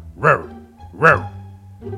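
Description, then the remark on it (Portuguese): A person's voice imitates a dog barking: two short, loud, throaty woofs about a second apart, followed by a brief softer vocal sound. “Então o primeiro gato lhe diz: Olha, por que você late se você é um gato?”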